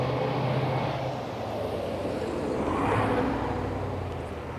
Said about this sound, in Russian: а сейчас проедет машинка.